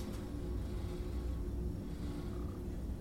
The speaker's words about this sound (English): Drone moves to select B15 level. Elevator begins to descend.